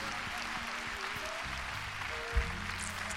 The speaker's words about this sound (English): Clap your hands, everybody, and praise God.